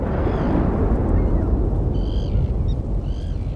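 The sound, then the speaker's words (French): A loud, continuous low rumble of a thunderstorm at sea rolls on without pause, with a couple of brief high-pitched cries cutting through near the end, as thunder, lightning and giant waves toss Captain Savat's small boat. No one speaks. “Coup de tonnerre, éclairs, vagues géantes le petit bateau du capitaine Savat se fait sacrément secouer.”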